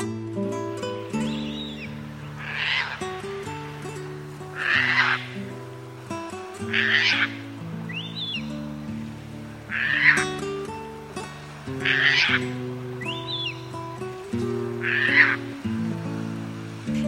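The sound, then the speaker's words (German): Harsh, raspy Caspian tern calls repeat about every two seconds, eight or so loud grating cries sounding over a steady low musical drone. “Das war die Raubseeschwalbe.”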